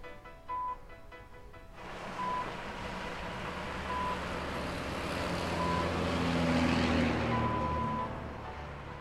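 A car's reversing sensor beeps in short, evenly spaced tones over the steady hum of the engine and road noise from inside the vehicle as it slowly parks while dropping a child off at school.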